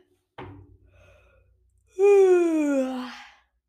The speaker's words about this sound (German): Gähnte Sandy.